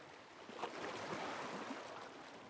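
A soft, steady wash of gentle sea waves lapping at a shore, quiet and continuous with a slight swell, with no voices.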